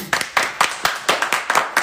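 Hands clap in a quick, steady rhythm, about eight sharp, bright smacks spaced evenly, with no voices over them.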